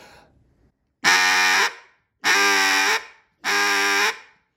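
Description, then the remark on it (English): Three long, loud, buzzy blasts from a duck call, blown with air started at the push point, evenly spaced with short pauses between them, played alone with no talking. “DUCK CALLING LESSON: From Beginning to Field”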